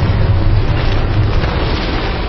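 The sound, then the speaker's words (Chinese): A huge explosion as tomb robbers blast open a tomb at a cemetery below Yongning Mountain outside Yi County, Baoding, Hebei, on a cold night in early November 1938: a loud, sustained roar of deep rumbling and crackling that stays steady for a couple of seconds with no voices. “突然，墓园内传来一声惊天的爆炸，”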